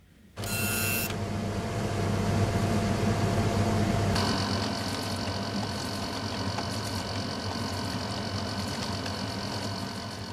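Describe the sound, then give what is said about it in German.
A mainframe computer runs with a steady, loud mechanical hum and whir, opening with a brief high-pitched rattling burst; partway through, a higher whining tone joins the drone. No voices. “Was ihr gerade gehört habt, war der Originalton eines Mainframe-Computers.”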